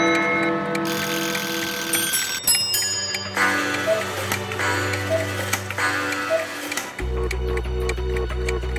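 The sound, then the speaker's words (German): Several clocks tick in steady, overlapping rhythms, crisp and clear, layered over sustained tonal music whose low notes shift partway through, from a report on a clock workshop and a clock museum. No one speaks. “hat einen Uhrenworkshop und ein Uhrenmuseum besucht und so hinter die Kulissen der Faszination Uhr geblickt.”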